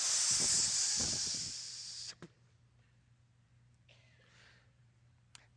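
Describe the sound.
A group of voices holds a long, loud hissing "sss" for about two seconds, sustaining the S of the word "gossip" like a snake, then cuts off abruptly into quiet with faint scattered noises.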